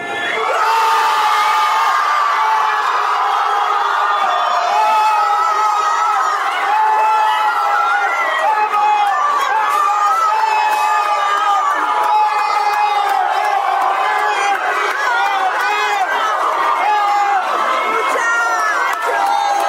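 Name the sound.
football fans cheering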